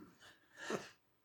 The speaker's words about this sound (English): Bless you. Oh my lord! I tried to hold that one in